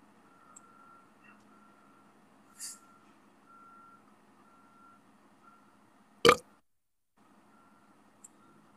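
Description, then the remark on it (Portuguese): A single short, loud burp bursts out over a steady background of a truck idling with rhythmic reversing beeps, followed by a brief moment of silence. “Rotei.”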